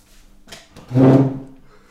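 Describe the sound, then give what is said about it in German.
Chair legs scrape across a hard floor: a couple of soft knocks, then one loud, groaning drag lasting about half a second. Nobody speaks. “Ich muss unbedingt Filzis besorgen, ey, für die Stühle.”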